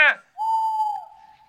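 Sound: owl hooting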